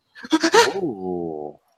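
A dog close by lets out a brief, harsh yelp that slides into a drawn-out, steady whine lasting about a second before stopping abruptly.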